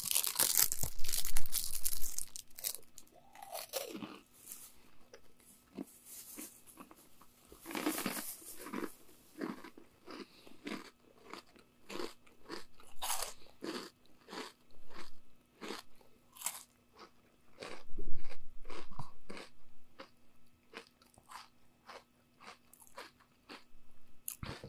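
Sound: crunchy food being chewed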